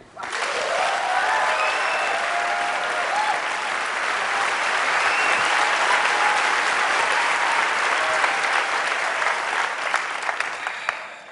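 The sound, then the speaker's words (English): A large audience applauds steadily for about eleven seconds, a dense, sustained wash of clapping that stays loud and even throughout, with a few faint voices mixed in. “I guess we're going to send that applause to the 350 journalists who worked with you, right?”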